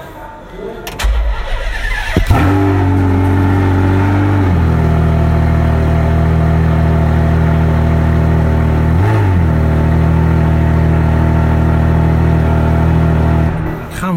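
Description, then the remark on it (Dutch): A sports car engine cranks and fires up with a roar, then settles into a deep, loud, rumbling idle, with a couple of brief throttle blips along the way. “allemaal missen als ze elektrisch rijden.”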